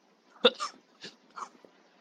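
A short fit of coughing: four quick, rough bursts, the first sharp and loudest, the rest softer and breathier, spaced unevenly over two seconds with no talking.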